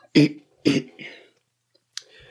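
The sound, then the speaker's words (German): Two sharp, forceful throat clearings, each a quick rough burst, followed by a softer guttural rasp and a faint click after a short pause. “Ja, sorry, ich muss mich vielleicht das ein oder andere Mal räuspern.”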